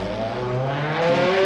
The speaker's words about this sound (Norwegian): Det skal også nevnes at Jon Arne akkurat har pulla opp i sin tre millioner kroners Ferrari